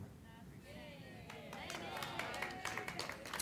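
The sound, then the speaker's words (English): Scattered claps build into a growing round of audience applause in response to a preacher speaking about fasting, with crowd voices murmuring underneath as the clapping thickens and grows louder toward the end. “I knew I'd get applause when I spoke about fasting.”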